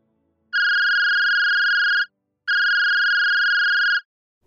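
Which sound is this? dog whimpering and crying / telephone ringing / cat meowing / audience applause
telephone ringing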